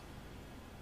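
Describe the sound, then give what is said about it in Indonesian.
A faint, steady hiss from an oxygen concentrator breathing machine, a continuous airy rush with no pauses or changes, heard alone without any voices. “apa itu desisannya itu oh ya tiupannya tiupan ya.”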